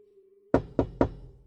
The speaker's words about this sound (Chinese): 我敲了两下门，却听到。吱呀一声，门缓缓的开了。